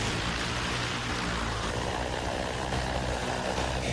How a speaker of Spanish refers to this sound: Y es que aunque este último sonido también te parezca de ciencia ficción o te recuerde a un helicóptero, no es nada de eso. Mejor dicho, o más bien, es una mezcla de ambos. Es uno de los primeros prototipos de taxis voladores que ya están en marcha.